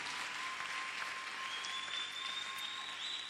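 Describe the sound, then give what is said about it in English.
An audience claps for Jesus steadily for several seconds, a dense, even wash of many hands with no pauses, and a faint high-pitched tone runs underneath throughout. “Even eh, like today, you clap, clap, the clapping is for Jesus.”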